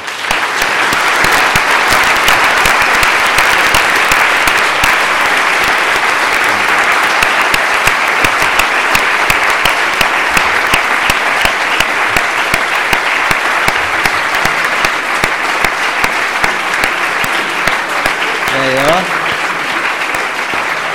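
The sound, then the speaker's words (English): Sustained, loud applause from a large audience, a dense wash of clapping that holds steady for about twenty seconds without letting up, with a brief voice surfacing near the end. “If you give him a big round of applause, he might come back.”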